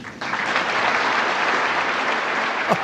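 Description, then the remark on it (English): A large crowd at the National Association of Evangelicals claps and cheers after a quoted statement of a young father, a dense, steady wash of applause that holds at full strength through the whole moment, loud, with no one speaking. “That's uh, pretty weird for a crowd to cheer on a father wishing for the death of his children.”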